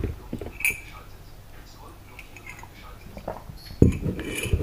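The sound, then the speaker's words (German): A cup clinks softly against a saucer or table a couple of times, with faint sipping of coffee and quiet handling noises in between against a low background hum. “Und ja, Gut, noch einen Schluck Kaffee trinken.”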